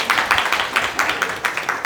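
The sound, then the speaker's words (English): Steady audience applause for someone who recited John 3.16 from memory, a dense wash of many hands clapping at a quick, even pace with no voices on top, holding at a fairly loud, constant level throughout. “Round of applause.”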